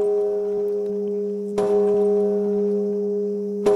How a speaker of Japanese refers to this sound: 8年が経った今もなお365日24時間絶えず鐘の音が鳴り響いています。騒音に耐えかねた住民の大半が避難したためゴーストタウンと化した呪文字周辺ですが今回ロボットである私が市から依頼を受けてこの除夜の鐘を力ずくで止めることになりました。